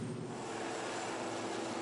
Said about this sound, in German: Der französische Flugzeugträger Charles de Gaulle, den sie schützen soll. klar, es ist ein Kampfeinsatz. vom französischen Flugzeugträger starten regelmäßig Flugzeuge, um in Irak und in Syrien den, die Terrororganisation